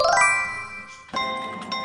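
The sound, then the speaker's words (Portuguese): Bright electronic chimes and jingling tones from a slot machine, ringing in two bursts with a fresh ding partway through. Fairly loud, with no voices. “Instalei uma maquininha caça-níquel”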